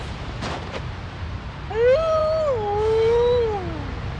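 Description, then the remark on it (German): A wolf lets out a single long howl, rising then slowly sliding down over about two seconds, fairly clear above a steady windy hiss in cold, snowy weather, with no one talking. “Die haben tatsächlich Wölfe hier.”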